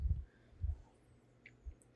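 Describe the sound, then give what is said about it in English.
A female dog chews on bones, giving three dull, low crunching thumps at uneven intervals with a few faint high clicks and scrapes in between, and no one talking. “Sorry, my dog's she's chewing bones, bro, making noises.”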